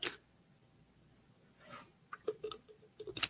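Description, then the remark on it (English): A quiet sip from a drink: a soft slurping rush followed by a scatter of small mouth clicks and light taps, all faint, with no talking. “And let me get a sip.”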